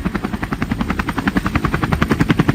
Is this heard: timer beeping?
no